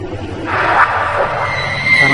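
A high-pitched female scream in a hotel rises and wavers for over a second, then trails into a thinner, quavering tone over a steady low background hum, with no talking.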